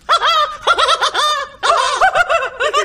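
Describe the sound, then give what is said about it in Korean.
A voice imitates Mozart's trademark laugh like a cackling chicken, a rapid run of high, bouncy clucks in two quick bursts with a short pause between, loud with no other talk. “닭처럼, 닭처럼.”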